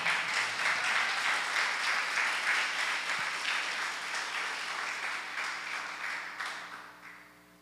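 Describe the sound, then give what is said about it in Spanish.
A crowd applauds steadily for several seconds, a dense wash of many hands clapping that gradually thins and fades toward the end, with no talking. The applause is given for the Father in heaven. “Denle un aplauso al Padre.”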